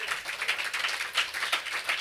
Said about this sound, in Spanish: Amén. Damos un aplauso a nuestro Dios, amados hermanos.